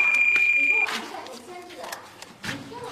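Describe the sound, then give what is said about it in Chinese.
A telephone rings with a steady, high-pitched electronic tone, fairly loud, for under a second before cutting off abruptly; voices and movement follow. “谁这么早打电话来？”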